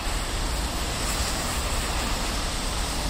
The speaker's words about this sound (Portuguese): Entretanto, começa a chover.